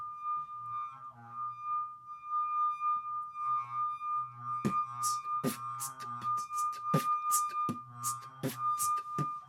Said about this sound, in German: Also das ist jetzt ein Glas. Du musst noch einen Beat dazu machen.